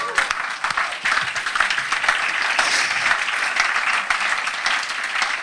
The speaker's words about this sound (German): Jetzt wäre es gut, wenn er klatscht.